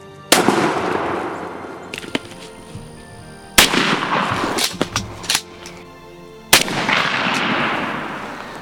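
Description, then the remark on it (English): Three loud gunshots while turkey hunting outdoors, from the 2012 season of Turkey Thumpers, boom out a few seconds apart, each trailing off in a long, echoing rumble, with a few sharper small cracks and clicks between the second and third. “And oh, yeah, thumping turkeys.”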